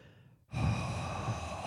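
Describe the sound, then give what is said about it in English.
A person imitates heavy, creepy breathing: after a brief quiet moment, one loud, sustained, rasping breath carries on to the end, with no talking. “When you started breathing like that”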